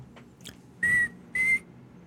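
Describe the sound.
A person whistles an imitation of the tres pies bird call: two clear, steady high notes at the same pitch, each about a quarter second long, separated by a brief pause, with no talking.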